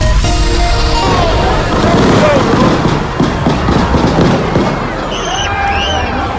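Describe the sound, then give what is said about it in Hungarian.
A rapid string of sharp gunshot cracks echoes outdoors over a dense, noisy crowd, with people shouting and a few high-pitched screams rising near the end. The shooting breaks out by the main railway station in Kansas City, beside a parade crowd of about a million celebrating the championship-winning American football team. “A városban felvonuló milliós tömeg közvetlen közelében a főpályaudvarnál, amint hallhatták, lövöldözés tört ki.”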